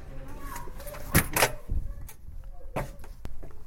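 A door at Lillehammer library is opened, with a man waiting behind it: a sharp latch click and a couple of thumps and creaks, followed by a few softer knocks and handling noises against a quiet background.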